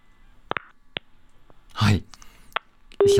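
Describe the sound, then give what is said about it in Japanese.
A phone call during an interview cuts out into a few short, sharp electronic beeps spread unevenly, with a burst of crackling noise in between and a steady tone sounding at the end. “机といったところで切れてしまいました。もう一度あのスタッフでかけ直したいと思います。”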